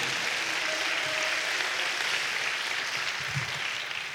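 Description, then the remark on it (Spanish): A church audience claps together as applause for the Lord, in a steady, dense wash of applause that holds at an even level throughout, with no one speaking over it. “Eso, denle un aplauso al Señor, hermano.”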